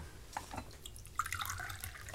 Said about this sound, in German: Gib mir bitte ein Glas Wasser aus der Karaffe.